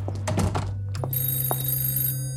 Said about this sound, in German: Als das Telefon in der Küche klingelt, entschuldigt sich